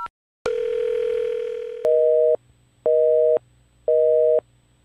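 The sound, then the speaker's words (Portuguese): A steady mobile phone tone hums for over a second, then switches to a higher out-of-service busy signal beeping in regular on-off pulses, about three repeats, clear with no voices. It is heard after the emergency number is dialed on an old brick-style mobile phone from inside a car. “Parece que o sinal tá fora de área.”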